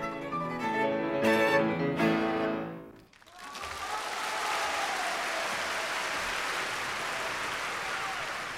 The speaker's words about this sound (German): wie fern der Applaus und die Bravo-Rufe nun waren.